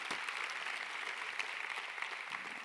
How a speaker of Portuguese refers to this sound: Pode aplaudir porque é verdade. Amém.